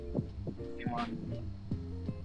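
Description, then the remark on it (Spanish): An electric fan hums steadily, a low droning tone with faint overtones, broken by soft rhythmic thumps about every half second. No one speaks. “Hasta acá, oye, se escucha mucho. Se escucha un, ventilador, güey.”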